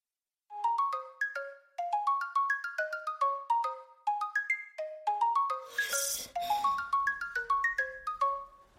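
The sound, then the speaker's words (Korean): A phone ringtone plays a bright, repeating melodic chime pattern without pause, clear, ringing in the dark at 4:54 at night and waking a sleeper, with a brief rustling noise partway through and no voices. “쉬지 않고 이어지는 벨소리에 눈을 떴을 때 어둠 속에서 디지털 시계가 4시 54분 모양대로 빛을 내고 있었다.”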